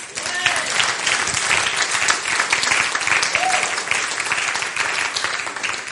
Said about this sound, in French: Hallelujah. Béni le Seigneur. On applaudit Jésus.